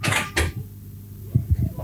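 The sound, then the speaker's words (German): A door shuts with two sharp knocks close together, followed after a short pause by a few softer, low thuds, with no talking. “Machst du die Tür zu”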